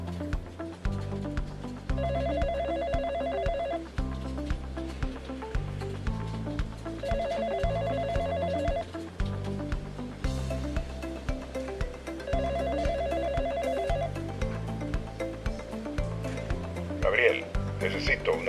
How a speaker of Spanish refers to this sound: Los primeros minutos transcurrían con una calma que sabía duraría muy poco, hasta que sonara el teléfono con los primeros requerimientos de la gerencia.